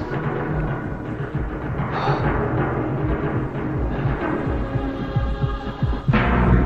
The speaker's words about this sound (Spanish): Tienes que sentir al nuevo MacLeod dentro de ti. Los latidos de su corazón.